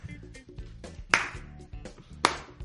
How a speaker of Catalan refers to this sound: El senyor del públic està aplaudint. Molt bé, gràcies.